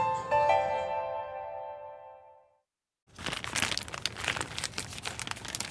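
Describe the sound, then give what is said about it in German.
A fading musical tone gives way to a short silence, then continuous crinkling and rustling as someone rummages through a medium-sized bag holding a week's household sales packaging waste, including a yogurt cup, a detergent bottle and a burrata tub. “kommt in einer Woche eine mittelgroße Tüte voll Verkaufsverpackungen zusammen. Abfall für den gelben Sack.”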